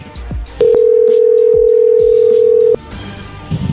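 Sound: telephone dial tone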